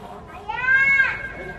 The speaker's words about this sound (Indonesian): Ayah, ayah siapa ya, anak siapa ini? Kenceng banget teriaknya.